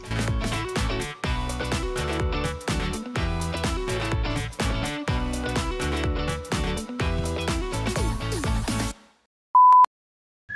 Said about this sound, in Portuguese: eu boto um bip pra, pra, indicar que tá uma separação, aí o off-topic, a gente falando alguma besteira, algum problema que deu